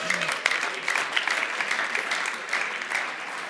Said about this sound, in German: Okay, komm, lass uns Jesus einen Applaus geben.